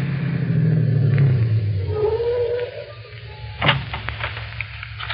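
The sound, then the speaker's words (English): A car engine rumbles, its low drone sliding downward in pitch, followed by a steady idle-like hum and a single sharp clunk near the end. “Stop the car. Take a look at it.”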